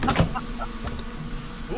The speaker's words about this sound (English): Close the door. Here, I'll grab the door. There you go.